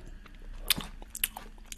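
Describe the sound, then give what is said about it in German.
Crunchy bites and chewing of Spritzgebäck butter cookies eaten with tea, with a few sharp crackling snaps over soft mouth noises, fairly quiet with no talking. “Gerade einfach so, habe mir gerade einen Tee eingeschenkt, habe ein bisschen Gebäck rausgeholt.”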